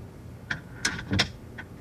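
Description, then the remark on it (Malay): A door is pushed shut, a few short knocks and scrapes of the handle and frame ending in a firmer thud, with no one speaking. “Sebelum Han cakap apa-apa, baik Han tutup pintu.”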